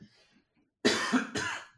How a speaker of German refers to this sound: Entschuldigung, ich muss mich einmal räuspern.